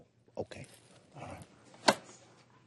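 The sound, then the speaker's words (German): A dog shifts around, letting out soft whimpers among a few brief rustling movements and one sharper bump, with no talking. “Sehen Sie, der Hund spürt, dass ich emotional werde. Er will mich beruhigen.”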